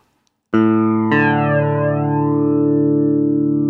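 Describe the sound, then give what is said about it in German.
An electric guitar chord is struck twice and left ringing through a modulation effect pedal with one knob turned fully to the right, its sustained tone wobbling and sweeping. Loud and played alone with no voices. “Ah, der wobbelt mehr. Ja, der macht was anderes, ne?”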